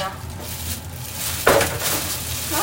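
dishes clattering

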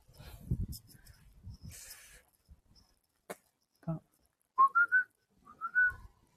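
person whistling a tune

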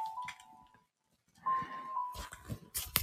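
cat vocalizing

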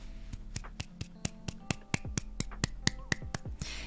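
clapping hands

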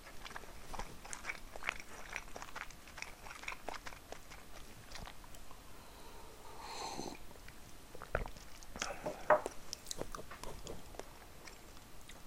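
chewing food

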